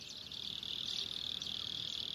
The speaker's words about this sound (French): Un insecte nocturne, une courtilière, rythme la fin du jour sur les plaines de Caceres.